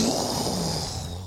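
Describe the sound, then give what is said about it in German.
A voice imitates thunder with a rough, rumbling growl held steadily for just over a second, loud, with no other talking. “Das war der Sound vom Donner.”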